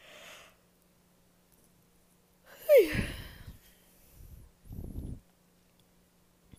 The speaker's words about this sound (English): and I'm yawning again.